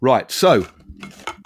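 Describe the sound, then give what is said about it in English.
A man speaks a couple of words, then a Pringles snack tube is handled, with soft scraping and light hollow clatters that are quieter than the voice. “I um, mean, you know, uh, it's annoying because I was about to say that it's the sound of a Pringle tube, and you, I was like, I've got to guess it.”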